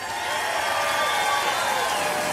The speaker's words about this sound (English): Uh, can we just get a round of applause for your pastor right now?